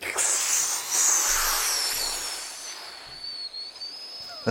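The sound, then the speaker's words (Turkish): A voice imitates an airplane taking off from the runway as its wheels leave the ground: a sustained, breathy whooshing hiss with a thin high whistle that slides slightly downward, steady for about four seconds and easing off toward the end. “Uçağı havalandırıyor.”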